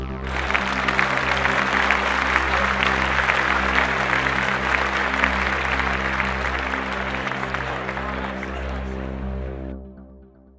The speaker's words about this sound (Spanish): Todos asintieron que sí con una ovación de entusiasmo.